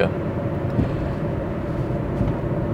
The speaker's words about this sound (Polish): Chodzi o to, żeby na zewnątrz było słychać. Że co prawda kupiłem diesla, który robi ale zawsze chciałem mieć V8, więc żeby sąsiad słyszał, że mam V8, to Audi mi zamontowało głośniki za zderzakiem, żeby udawało V8.